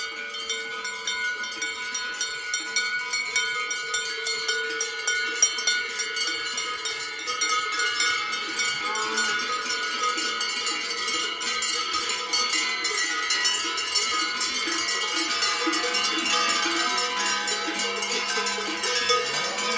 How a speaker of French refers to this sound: Voilà, c'est des cloches vraiment euh, sentimentales. Et comme beaucoup des leurs, on a un petit, un petit patrimoine en, cloche et c'est le genre de choses que qu'on y tient, on n'aime pas les perdre.